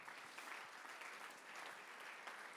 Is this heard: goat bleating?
no